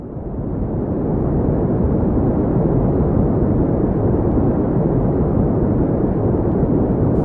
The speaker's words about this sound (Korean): 이게 그 소리예요? 그냥 잡음이죠? 네. 그냥 잡음이에요, 그냥. 우리가 그냥 백색 잡음처럼 들리는 잡음. 이게 우리 귀로 직접 들을 수 있는 소리는 아니지만, 마이크로파에서는 항상 나는 잡음이라는 거죠.